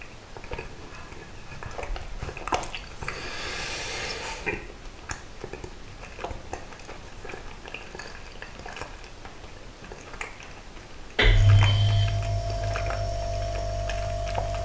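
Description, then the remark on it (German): Quiet, irregular crunching and smacking of someone chewing a bread-and-cheese sandwich, with a brief hiss partway through; near the end the steady low electrical hum of a refrigerator switching back on starts and continues. “Und dann esse ich noch ein bisschen Stulle mit Brot und Käse.”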